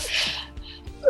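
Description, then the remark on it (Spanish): A single sudden sneeze, with a sharp hissy burst of breath that fades quickly, followed by a brief faint vocal sound at the end. “Jesús.”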